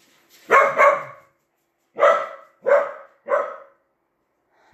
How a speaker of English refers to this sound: Excuse me while I go see what the dogs are about. Well, what the dogs were about was basically a neighbor walking past because the entire street is their territory, apparently.